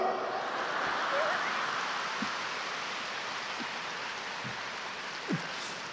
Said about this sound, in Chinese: 这个掌声还可以，所以不讲了。